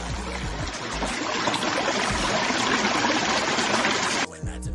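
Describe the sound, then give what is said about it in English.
A steady rush of flowing water, a sound effect played through a sound card, fills nearly the whole clip, loud, then cuts off abruptly near the end, leaving a faint low hum. “I got water.”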